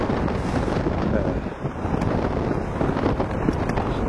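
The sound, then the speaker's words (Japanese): Strong wind buffets an earphone microphone held in a gloved hand while walking outdoors, in a steady, heavy roar of low rumbling noise that barely lets up, with gusty surges throughout and no clear voices. “えー、手袋をした手でイヤホンを握る作戦これでいかがでしょうかね すげえな今日は録音に適していない爆風が吹いておりますけど、”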